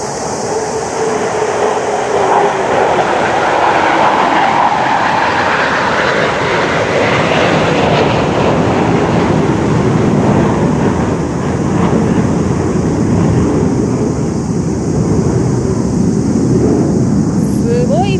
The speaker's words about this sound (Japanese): 爆音でしょ今ねあの航空機が2機揃って飛んでいきました各務原市っていうのは自衛隊の航空基地があってね